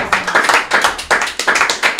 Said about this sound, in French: Le deuxième prix, voilà, le deuxième prix. D'accord, on peut applaudir, bravo.